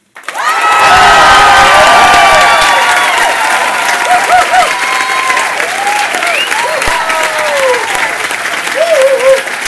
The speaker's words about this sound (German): Aber wir machen mal einen kurzen Willkommensapplaus für die, die im Kino sind. Achtung, eins, zwei, drei.